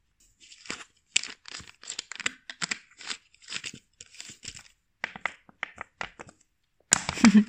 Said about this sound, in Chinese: 啊，你刚刚有按的那个声音是是是塑料瓶吗？ 没错，对，所以说我觉得这是最简单的，因为现在这个就是矿泉水瓶，正好打开了喝一口。